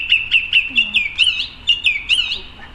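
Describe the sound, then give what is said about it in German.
A song thrush sings clear, bright whistled notes, repeating each short phrase three or four times in quick, rhythmic bursts; distinct, with no talking over it. “so eine Singdrossel, die wiederholt mhm. drei, vier, fünf Mal die gleichen Strophen”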